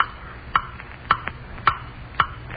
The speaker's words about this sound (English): Ticking, ticking, stop ticking. I hear you, blasted clock. I hear you.